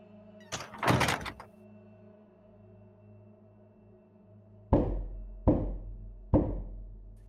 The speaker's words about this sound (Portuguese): Eu vou tentar entrar e fechar a porta.